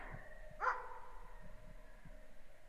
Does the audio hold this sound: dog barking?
yes